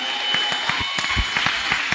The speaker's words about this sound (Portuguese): Vamos aplaudir esse cara, esse